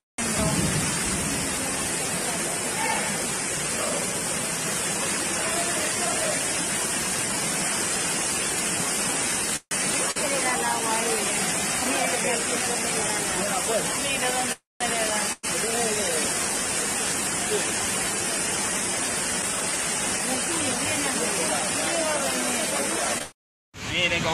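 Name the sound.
rushing river water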